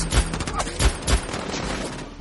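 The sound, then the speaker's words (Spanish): Several sharp gunshots crack back and forth in quick succession, loud, with uneven spacing between bursts over a continuous noisy background, as men from a house fire at a man with a rifle who returns fire. “Disparan hacia Wolf, que devuelve los disparos.”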